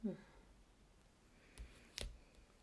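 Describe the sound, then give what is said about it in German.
Two sharp, quiet keyboard clicks land about half a second apart after a brief murmur of voice, with faint hiss in between, like a few isolated keystrokes on a computer keyboard while typing a search query. “Wie kann man so viel tippen?”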